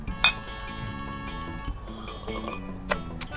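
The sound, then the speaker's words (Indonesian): Glasses clink together in a toast: one bright, ringing clink at the start, then two quicker, sharper clinks near the end, all fairly loud over a steady low background hum. “Tapi kita minum dulu. Cheers, man.”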